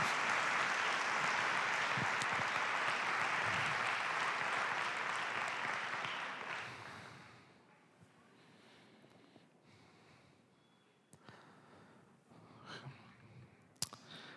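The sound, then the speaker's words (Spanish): An audience breaks into loud, dense applause given to Jesus that holds steady for several seconds, then fades out, leaving a quiet stretch with a few scattered claps and small noises. “Cuando tú confías en Él y no estás ansioso y preocupado, dar un aplauso a Jesús.”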